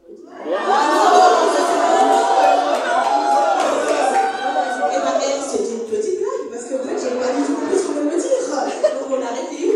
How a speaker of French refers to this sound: Et donc, euh, voilà un petit extrait audio euh, du discours de cette, pauvre dame qui a dû faire face à une foule en, en délire, la pauvre.